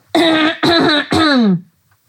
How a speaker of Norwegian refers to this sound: Jeg bare kremter litt, ja.